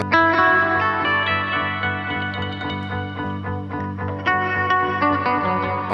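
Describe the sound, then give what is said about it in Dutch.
Sustained, layered instrument notes repeat in a steady loop from an effects pedal held on tap tempo, washed in added reverb and echo so the tones blur and ring together at a full, even level with no voices. “zeg ik doe die galm of zo, dan heb ik.”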